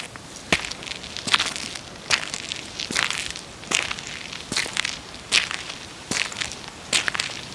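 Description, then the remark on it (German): Footsteps on a tarred asphalt footpath, a steady walking rhythm of about ten gritty, scraping steps, moderately loud, with no voices. “Wie klingt ein geteerter Fußweg?”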